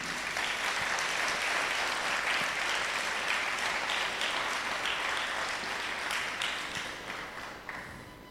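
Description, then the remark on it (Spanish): Sustained applause from a large audience in Cochabamba, Bolivia, sent to viewers watching the service online, dense steady clapping for several seconds before gradually thinning and fading toward the end. “Les mandamos un fuerte aplauso desde Cochabamba, Bolivia.”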